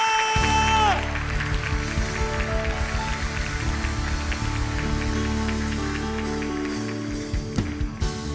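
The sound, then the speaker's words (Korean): A worship audience applauds to give thanks and glory to God before praise singing. A steady, dense wash of clapping lasts the whole stretch, layered over sustained keyboard chords and a low, humming musical drone. “찬양 가운데 그 하나님의 위대하신 얼굴을 뵙기를 원하시는 사모하는 모든 주님의 아들과 딸들 아버지 하나님께 감사와 영광의 큰 박수 올려드리며 찬양의 자리에 나갑시다.”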